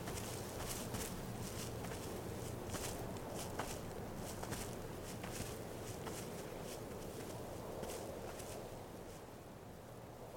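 footsteps walking

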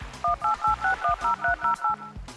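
telephone keypad dialing tones

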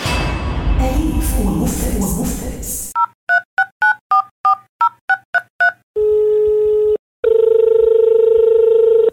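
telephone call being dialed

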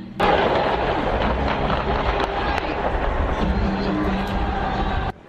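several gunshots

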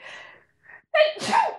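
a sneeze

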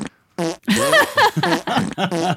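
fart sound effect

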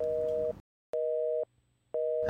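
telephone busy tone

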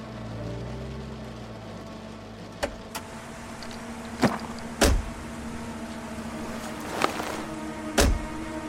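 car being parked

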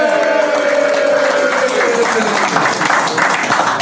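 audience applause

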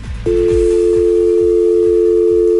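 telephone dial tone

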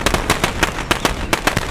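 firecrackers exploding

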